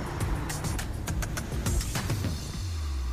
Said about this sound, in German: So, ich laufe jetzt hier wieder über den Kudamm. Da ist der Bus. Hello. Wieso sind denn Menschen im Bus?